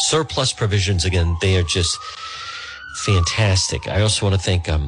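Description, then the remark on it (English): A siren wails faintly in the background, its tone slowly rising then falling in one long sweep, while a man keeps talking over it. “And also, you could hear a siren in the background.”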